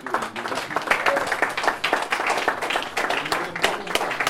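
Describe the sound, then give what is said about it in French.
A crowd at the Bourse du Travail in Gennevilliers, celebrating a victory of the CGT hotel workers' union, claps steadily, dense overlapping hand claps forming a continuous wash of applause, moderately loud, with a few voices murmuring underneath. “je crois qu'on peut l'applaudir parce que.”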